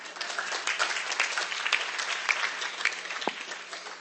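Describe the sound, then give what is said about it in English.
An audience at a speech claps steadily for a few seconds after being asked to clap if they have cell phones: a dense, even wash of many hands applauding at once, moderately loud throughout. “Everybody has a cell phone. Clap your hands, please.”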